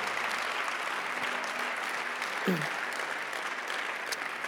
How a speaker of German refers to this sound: Komm, lass uns Jesus mal einen Applaus geben. Er ist, er ist würdig. Komm, lass uns ihn erheben.